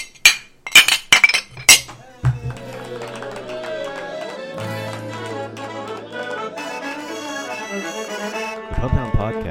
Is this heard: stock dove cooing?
no